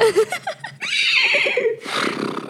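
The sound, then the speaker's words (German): A person imitates a horse's whinny, starting with quick wavering vocal bursts, then a loud breathy, trembling squeal that breaks off and returns as a rough, airy snort-like finish. “Du klangst gerade wie ein Pferd”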